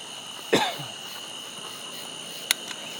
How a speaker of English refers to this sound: Oh, I got a cough.